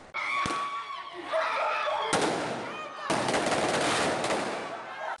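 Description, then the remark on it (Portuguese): Handheld 'espada' firework rockets hiss and crackle continuously in a street of Salvador, Bahia, Brazil, during the June festivities' Guerra de Espadas, where groups fire rockets at each other, with sharp loud bangs near the start and around the two- and three-second marks, and some voices faintly mixed in. “A Guerra de Espadas é uma disputa entre grupos que soltam foguetes uns contra os outros.”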